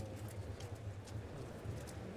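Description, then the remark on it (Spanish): A few faint, irregularly spaced hoof clops from a horse in a bullring, a horse from the stable of Enrique Peña moving to its place in the contraquerencia, set against a steady low rumble of background noise with no voices. “Ya va el caballo a su lugar correspondiente en la contraquerencia”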